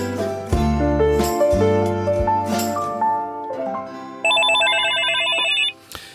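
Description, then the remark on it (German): A telephone rings with a rapid, trilling electronic pulse, loud, following a stretch of tonal music that fades out just before the ringing starts; the ringing is heard while placing a call to someone. “Jetzt rufen wir jemanden an.”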